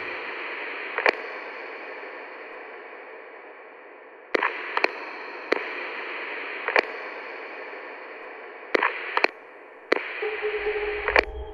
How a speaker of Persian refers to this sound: ناگهان صدای بیسیم در سرش پیچید